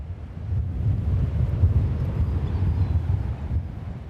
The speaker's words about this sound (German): Von der Stadt geht es noch einmal ans Meer, bei Ebbe. Das Wasser hat sich weit zurückgezogen, der Wind allerdings zerrt an unseren Kapuzen und Haaren.